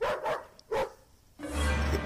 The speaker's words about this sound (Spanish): Sin motivo aparente, mi perro comenzó a ladrar de manera desesperada mientras rascaba la puerta de la entrada.